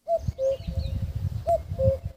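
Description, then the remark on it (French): A common cuckoo calls twice, each call a clear two-note 'cu-coo' falling in pitch, heard over a low rumbling background. “Coucou, oh non, c'est coucou.”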